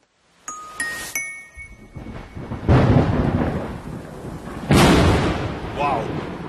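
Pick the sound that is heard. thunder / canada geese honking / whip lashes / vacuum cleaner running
thunder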